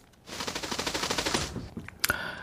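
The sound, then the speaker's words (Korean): A bird's wings flap in a rapid, whirring flutter of fast even beats for about a second, then fade. A sharp click and a brief high ringing tone follow. No one speaks. “무슨 뭐 저 신문 윤정기가 막 돌아가는 소리 같기도 한데 새 날갯짓입니다.”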